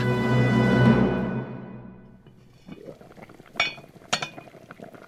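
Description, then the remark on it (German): A pot of pork cheeks simmering for two hours in a spiced cabbage broth, soft irregular bubbling with a couple of sharper pops or clinks, following a louder sustained tone that fades away. “Schweinebacken köcheln derweil weiter. Ganze zwei Stunden sollen sie im würzigen Kohlesud durchgaren.”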